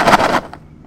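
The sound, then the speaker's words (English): A short, loud burst of dry rattling as a box of cereal brought from America is shaken, lasting under half a second and followed by a couple of faint taps. No one speaks. “holding up some cereal that someone brought him from America”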